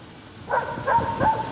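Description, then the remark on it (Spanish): A dog barks three times in quick succession, with fairly even spacing. The barks are moderately loud, sharp and slightly tonal, and nobody speaks over them. “Hola, perro, hola. Sí, ¿qué, qué está diciendo? por favor, me puede dejar déjame hablar, por favor, en serio.”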